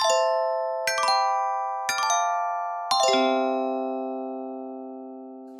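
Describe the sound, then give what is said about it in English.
A descending sequence of four bright, bell-like chime tones struck about a second apart, played as a transition into an interview, each ringing out and overlapping, with the last lower note sustaining as it slowly decays. “Yes, I think we'll just play a chime now and let the interview unfold in real time.”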